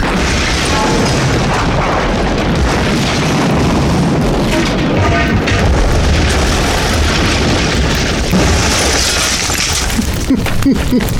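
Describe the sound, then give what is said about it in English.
A metal pipe smashes through a truck's engine block with a loud, violent crash, followed by a continuous roar of grinding, rattling wreckage noise that stays intense for about eleven seconds. “It went right through the engine block.”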